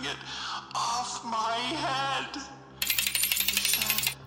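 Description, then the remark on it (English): Murmured talk gives way to a small metallic jangle from behind a big statue at the far end of a room, a quick run of bright, clinking rattles that lasts over a second and sounds clear. “Sure enough, a small metallic jangle slipped out from somewhere on the other side of the big statue at the far end of the room.”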